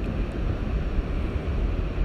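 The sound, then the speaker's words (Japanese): A steady, heavy roar of rough sea surf, waves churning and breaking with a deep rumbling wash and no pauses; no voices are present. “今回来た時はこん今回はねちょっとね荒々しい感じの海でした”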